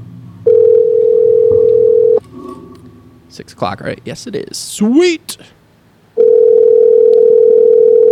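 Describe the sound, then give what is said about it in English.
An outgoing phone voice call's ringing tone: a loud, steady low-pitched hum sounding in two long bursts of about two seconds each, with a brief exchange of voices in the pause between them. “All right, let's call him here. Voice call.”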